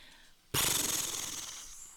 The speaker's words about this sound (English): All right, here we go. Page turn noise, the first one of the episode.